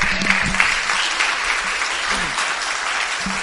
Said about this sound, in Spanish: ¿Cuánto da un aplauso al rey en esta hora?